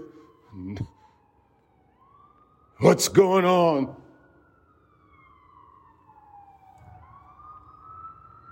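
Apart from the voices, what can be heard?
ambulance siren passing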